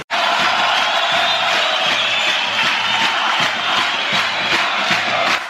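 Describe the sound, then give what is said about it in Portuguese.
A large crowd of football fans cheers and sings outside the stadium after Londrina's 2–1 win over Operário Ferroviário, a loud, continuous roar, voices rising and falling in rhythmic waves throughout with no break. “E o torcedor tá cantando lá fora ainda, hein, Reinaldo Furlan?”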